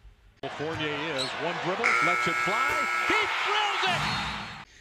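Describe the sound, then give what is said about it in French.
A loud, steady electronic basketball game buzzer blares for about two seconds, cutting through excited, indistinct voices and arena noise that continue around it. “Le buzzer du premier carton retentit.”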